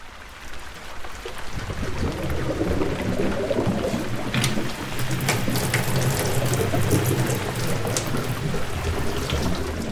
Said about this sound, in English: In the UK, it arrives in our homes on demand. Clean, clear, and plentiful the moment we fancy filling that kettle for a cup of tea